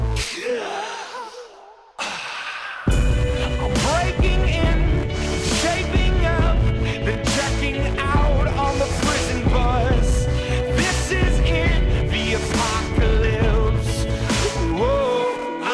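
A short breathy, airy sound and a brief pause, then a loud, dense rock song kicks in with heavy drums and layered vocals, playing steadily to the end.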